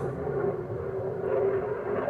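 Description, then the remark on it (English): A steady, loud low roar fills the whole stretch, like an airplane flying overhead, with a constant droning tone and no pauses or other sounds. “I am positive you can hear that airplane.”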